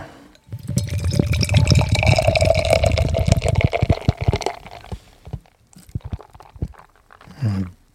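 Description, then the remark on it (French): Beer pours steadily into a glass for about four seconds, a loud glugging and fizzing stream, followed by softer clinks, drips and settling foam with faint voices near the end. “Quel beau son.”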